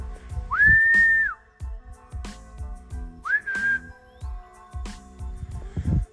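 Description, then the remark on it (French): A person gives two loud, steady whistles to call their dog back, a long one followed by a shorter one a few seconds later, over intermittent crunching and thumping noises. “C'est parce que quand je l'appelle, elle revient.”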